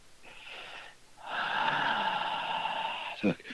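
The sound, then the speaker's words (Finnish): A voice imitates a cold, breathy puff of air: a short airy exhale, then a longer sustained hissing blow, ending with a quick breathy catch. Moderately loud, with no words spoken. “niin kuin kylmä puhallus.”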